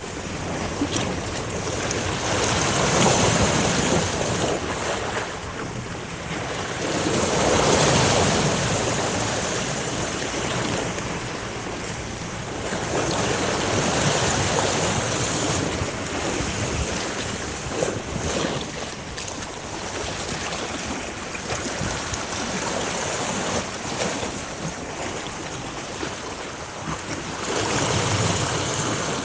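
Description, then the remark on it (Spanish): Ocean waves of the sea at Cozumel surge and wash continuously with a broad, rushing roar, swelling and receding in loose cycles, fairly loud, with wind-like hiss and no voices. “Maribel Romero nos mandó una postal sonora del mar de Cozumel que vamos a escuchar en este momento”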